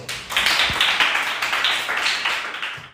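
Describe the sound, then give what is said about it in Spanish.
A short burst of applause from a group of kids in a class: many hands clapping together in a dense, steady patter for about three seconds, fairly loud throughout before cutting off abruptly. “Bien, chicos, un aplauso.”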